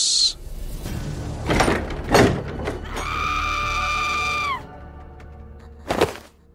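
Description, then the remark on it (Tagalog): A woman screams loudly in one sustained, high-pitched cry lasting over a second, preceded by a couple of thumping, door-like knocks and followed by another sharp bang. “Dito na po ako sumigaw ng malakas.”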